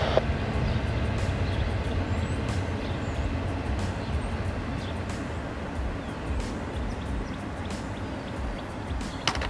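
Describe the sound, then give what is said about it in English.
A train rolls steadily past, a loud continuous rumble with scattered metallic clacks and squeals from the wheels as the cars go over the rails, and no one speaking. “And that will mark the end of that train.”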